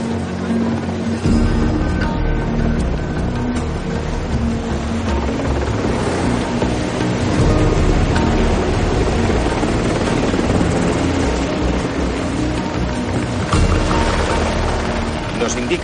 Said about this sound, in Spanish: El helicóptero despega y empieza a alejarse dejando atrás el lugar del accidente y la Plaza Mayor de Salamanca.